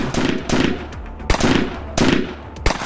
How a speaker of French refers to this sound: Avant que Clyde ait le temps de répondre à un truc bien senti, un des pecnos saisit le pistolet de Maxwell et tire sur la voiture.